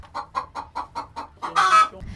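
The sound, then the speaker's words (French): Hens at the Ferme ouverte de Saint-Denis cluck in a steady run of short, evenly spaced bursts, then one louder, drawn-out squawk rises before the sound trails off into low background noise. “La ferme ouverte de Saint-Denis, ce sont aussi évidemment des chèvres, des moutons, des poules, des lapins”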